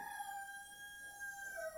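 A rooster crows faintly, recorded at home where the speaker keeps chickens. It gives one long drawn-out call holding a steady pitch before dipping at the end, with no voices over it.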